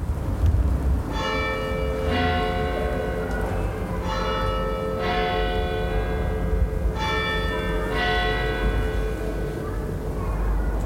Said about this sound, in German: Der ökumenische Glockenchor probt in meinem Garten. Die Klänge der nahen katholischen Kirche und die der reformierten Kirche am Surerkopf verwirbeln sich in meinem Garten. Sie tätschen an die Hausmauer vom Mehrfamilienhauses.